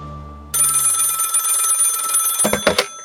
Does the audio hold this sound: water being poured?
no